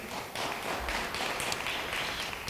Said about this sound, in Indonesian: Beri tepuk tangan yang baik bagi dia.